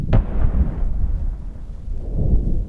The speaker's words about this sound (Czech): Trochu dál byly pak slyšet dopady dělostřeleckých nebo minometných granátů.